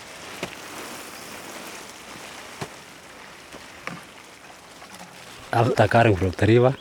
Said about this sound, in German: Nachdem wir das Wasser aus dem Fluss geholt haben, brauchen wir drei Stunden, um alle Setzlinge zu gießen. Wir machen das zu fünft, morgens und abends. Jeder von uns holt bei jedem Gang an den Fluss 20 Liter. Jeder geht zehnmal.